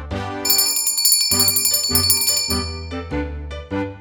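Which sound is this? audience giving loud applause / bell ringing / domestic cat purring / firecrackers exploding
bell ringing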